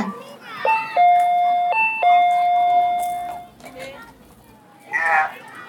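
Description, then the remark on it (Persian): A doorbell at the front door of a family home, rung because the key was forgotten, chimes twice in quick succession, a clear two-tone ding-dong repeated, ringing out fairly loud, with children's voices chattering faintly in the background and a brief shout near the end. “کلیدو با خودت آوردی آخ باز دادم رفت ولی اشکال نره زنگ میزنیم ما بابا خونه”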